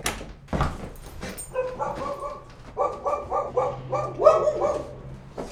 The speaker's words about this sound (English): Now there are a couple dogs over there, so but that's over in the next yard